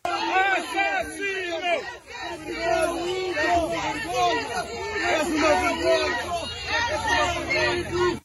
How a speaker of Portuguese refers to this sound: eu também achei giro que no meio daqueles gritos de assassino, alguns manifestantes tenham repetido aquilo que mais ouvem das respectivas famílias.